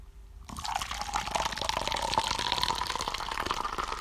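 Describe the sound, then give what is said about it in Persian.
Someone pours themselves tea into a cup in a steady, continuous stream, a bright splashing trickle that starts after a brief silence and keeps going, its tone rising slightly as the cup fills. No one speaks. “من یه قسمت چای بریزم برای خودم چون گلوم خوش شد”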